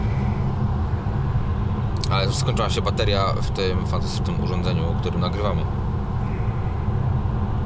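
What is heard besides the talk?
car driving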